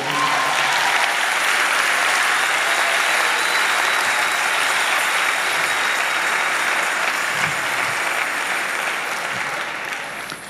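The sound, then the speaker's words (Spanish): Sustained audience applause, a dense, steady wash of many hands clapping at high volume for about ten seconds, tapering slightly at the end, with no voices standing out. “lléntale el aplauso ahora.”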